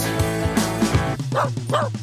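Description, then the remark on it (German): A dog barks several times in quick succession, a few deep woofs followed by two higher yips, fairly loud over a steady musical backdrop. “Sie haben wen dabei, das ist nur Rocky der Hund.”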